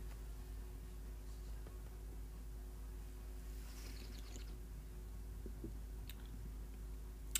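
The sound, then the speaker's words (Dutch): Quiet sipping and wet mouth sounds as a small sip of beer is swished and tasted, a few soft smacks over a steady low hum, with no talking. “Ik ga eens even een slokje nemen.”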